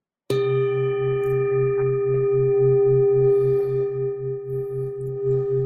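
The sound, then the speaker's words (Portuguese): A single meditation bell is struck once during a guided breathing relaxation and rings out with a clear, steady tone, sustaining and slowly wavering for several seconds without fading away. No voices are heard. “E aí ouve o som do sino.”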